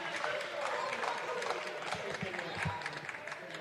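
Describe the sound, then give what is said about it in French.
In France, anti-bullfighting campaigners applaud themselves steadily for several seconds after failing to get bullfighting abolished, a dense, even wash of many hands clapping at once, with faint voices murmuring underneath. “Applaudissez, soyez fiers de vous.”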